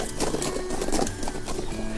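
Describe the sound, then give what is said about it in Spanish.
Horse hooves clip-clop at a steady walking pace as a horse is ridden, a series of crisp, evenly spaced knocks over a soft ambient background, moderately loud. “Se cuenta que a Maximiliano le gustaba mucho pasear en su caballo mientras se ponía al tanto de las noticias de la ciudad.”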